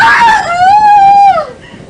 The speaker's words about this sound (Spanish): El ambiente se sentía tenso y el aire frío, cuando encendió la vela de su habitación con la intención de despertar también a don Carlos, lo miró y soltó un terrible y agudo grito de terror.